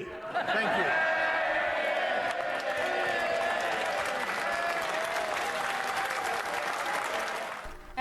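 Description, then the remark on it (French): Members of parliament in London stand to applaud in the chamber: a dense, steady roar of clapping with scattered voices and cheers mixed in, continuing for several seconds and easing slightly at the very end. “Les députés étaient debout pour applaudir dans la salle”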